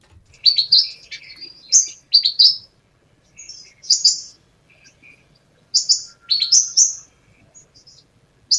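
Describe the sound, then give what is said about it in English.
A Brown Gerygone's call plays alone: bursts of high, thin twittering notes in quick phrases, with a pause mid-clip before more bright chirps, clear against a quiet background. “if you get the chance, they're very very sweet, and you'll hear that amazing call. Let's hear that amazing call one more time.”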